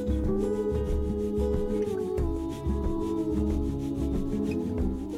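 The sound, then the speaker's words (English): A soft, steady shaker swishes in a repeating rhythm through a mellow acoustic bossa nova tune, mixed with sustained harmonic tones and a low bass line, with no voices. “Now, what's the name of that percussive instrument that sort of soft shaker sound?”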